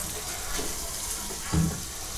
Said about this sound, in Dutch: Die schropt een hond onder de kraan.